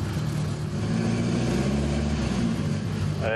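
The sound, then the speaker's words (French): A vintage Ford Cortina, an English car popular in the 1960s, starts and its engine runs steadily, a loud, continuous low rumble with a throbbing idle hum, and no voices over it. “Elle démarre, on va la réveiller en douceur et elle fonctionne.”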